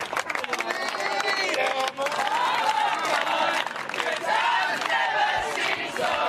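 A large crowd sings together in the background, a loud, sustained chorus of many voices with cheers and clapping mixed in, filling the whole stretch without pause.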